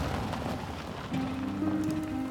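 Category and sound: nature, rain falling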